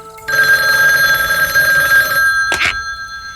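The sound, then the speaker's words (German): A telephone bell rings loudly and steadily for about two seconds in the evening in the Three Investigators' headquarters, then stops, followed by a brief clatter like a handset being picked up. “Als Justus am nächsten Abend allein in der Zentrale vor dem Rechner saß, klingelte das Telefon.”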